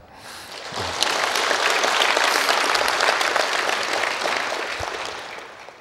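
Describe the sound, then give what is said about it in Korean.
A large audience claps steadily for about six seconds in tribute to President Kim Dae-jung for the 4·3 Special Act, a dense, sustained wash of applause that swells quickly and tapers slightly toward the end, with no speech over it. “제가 부탁도 하기 전에 그 이 사삼 특별법을 심고 가꾸신 김대중 대통령께 여러분들께서 그 마음으로 박수를 보내주신 것으로 그렇게 이해합니다.”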